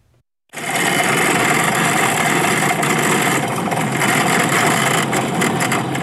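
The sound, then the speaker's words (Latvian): After a brief silence, a car's steady rumbling road noise kicks in abruptly, with continuous rattling and juddering vibration from tires hitting the potholed gravel state road running 8 km from the highway to Ziemupe, Latvia; no one speaks. “Tās ir nepārtraukts vibrācijas, autoriepas atsits pret bedrēm.”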